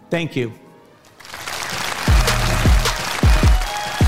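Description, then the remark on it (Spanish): A brief spoken phrase, then a large audience in Vancouver breaks into steady, dense applause at the end of a conference talk by Bill Gates, filling the rest of the moment, with some low rhythmic thuds pulsing underneath the clapping. “El problema es que ese ahora, estos aplausos en Vancouver, son de hace cinco años.”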